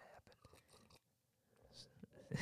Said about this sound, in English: as you slurp into the microphone. Mom hates when I slurp, so hi, mom.